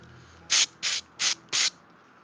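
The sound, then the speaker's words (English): A voice imitates blood draining out of an artery with four sharp, breathy hisses in an even rhythm. It is fairly loud, with no talking. “That was the sound of the um, the artery mm, draining out.”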